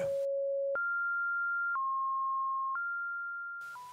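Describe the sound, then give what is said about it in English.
A steady, loud electronic ringing tone, pure and unbroken, stepping abruptly between a few pitches about once a second, low then higher, with no voices or other sounds; the only audio of 2013 online videos showing different sized red and blue squares on a white background. “A constant ringing tone was the only audio.”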